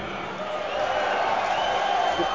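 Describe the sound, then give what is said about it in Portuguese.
A big stadium crowd applauds a player as São Paulo's starting lineup is announced at the stadium, a dense, steady roar of clapping and voices that swells slightly and holds for a couple of seconds. “Foi bem aplaudido.”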